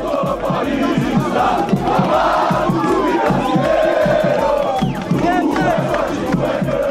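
A dense crowd of São Paulo fans at an airport arrivals hall, welcoming footballer Daniel Alves, cheers and chants loudly and steadily, with rhythmic low thumps like drumming or stamping underneath and occasional whistles and shouts rising above the roar.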